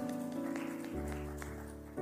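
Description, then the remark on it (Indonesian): A crowd claps steadily, a dense patter of many hands, over sustained musical tones that hold and shift in pitch throughout the two seconds. “Berikan tepuk tangan.”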